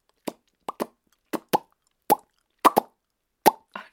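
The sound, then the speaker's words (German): A voice imitates bursting soap bubbles with a series of short, crisp mouth pops, about eight in irregular succession, some in quick pairs, moderately loud against silence. “Oder eine Seifenblase?”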